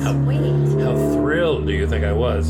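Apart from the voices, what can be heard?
bus passing by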